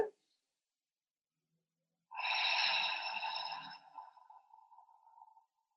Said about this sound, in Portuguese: Eu vou inspirar, eu abro, a caixa torácica se expande, quando ela se expande, o ar entra. Há uma pequena pausa. E no começo a gente solta bem devagar pela boca fazendo um som, abrindo a glote.